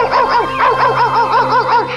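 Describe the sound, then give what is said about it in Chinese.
A dog named Heimeng barks over and over at a boy in a quick, steady rhythm, roughly nine sharp, high-pitched yaps in two seconds. The barking is fairly loud, with a faint low hum underneath and no talking. “哎呦，这只狗干嘛一直对着我叫啊？”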